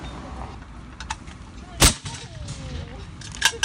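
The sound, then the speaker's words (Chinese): A single loud, sharp bang from the old-fashioned popcorn machine of a street popcorn seller going from lane to lane bursts out over a low, steady background hum, followed by a brief hiss and a few faint clicks and thumps afterward. “就而且由于那一声砰的那个爆炸的声音吸引力太大，以至于呢，我根本不记得在那之前呢，是不是那个卖爆米花的人是有吆喝什么东西的，我已经完全不记得了。”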